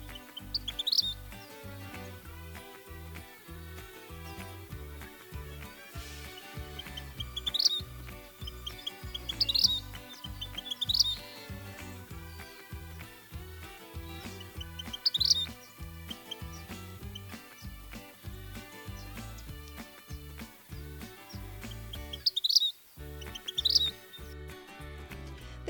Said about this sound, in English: Alejandro Ariel Rios Chelen and team in Mexico found that vermilion flycatchers can use the number of repetitions, so how many, of those police whistle sounds and the length of pauses in between those sounds to communicate with each other like this.